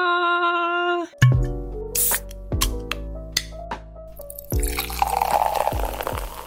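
A brief held musical tone gives way to wine pouring into a glass: a series of loud glugs and bubbly plops, then a softer fizzing, splashing trickle as the glass fills.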